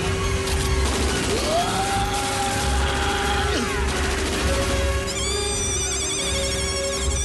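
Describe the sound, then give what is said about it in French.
Rapid gunfire sound effects in a loud, dense wall of battle noise as the Batte Brigade fires back at a rival crew in a boat battle, mixed with whistling tones that rise and fall, then a layer of steady electronic beeps near the end. “Allez, tire, tire dans le tas”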